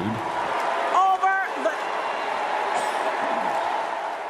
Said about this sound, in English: You know, so after Wasserman Schultz stepped down from her role, she was replaced by Marcia Fudge, a black member of the House of Reps from Ohio, and she was being booed.